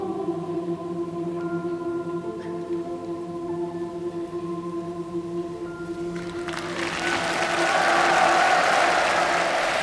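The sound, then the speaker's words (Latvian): A sustained musical chord rings out for several seconds, then a large audience at the closing concert of the 1993 Song Festival bursts into loud, dense applause after the song, filling the last few seconds. “Lai tad tulkotais ģimenei tiek aplausi, kas skan pēc šīs dziesmas 1993. gada dziesmu svētku noslēguma koncertā.”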